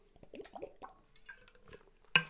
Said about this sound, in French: Et avant de prendre, embarquer là-dessus, prendre une petite gorgée d'eau.